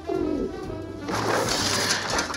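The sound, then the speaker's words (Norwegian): A pigeon coos in a low, throaty murmur for a couple of seconds in a trailer for the film Naked Gun 33 1/3: The Final Insult, with a rough, noisy rustle swelling up behind it partway through. No one speaks. “Have you seen my pigeon?”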